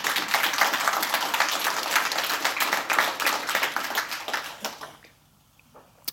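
A few seconds of steady audience applause, dense overlapping claps at an even level, which then stops abruptly and leaves near silence with a faint final tap.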